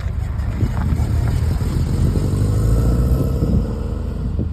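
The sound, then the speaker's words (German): Inside a rally car under way: a loud, steady rumble of engine and drivetrain, with a whining gearbox tone rising and falling over the low roar throughout. “Man hört unter anderem dieses Getriebe jaulen und so.”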